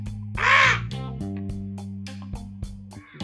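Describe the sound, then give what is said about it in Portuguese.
A person screams a single loud, harsh crow-like caw near the start, imitating a gralha (a jay or crow). A low, steady droning tone with faint clicks continues afterward. “É uma gralha.”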